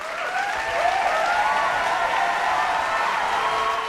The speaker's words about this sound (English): I think we should have a round of applause for that.